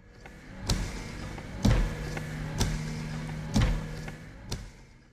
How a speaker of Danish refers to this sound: Så jeg trykker lige på en breaker.